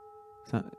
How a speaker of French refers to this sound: Ah, on attend vraiment le bout de la cloche.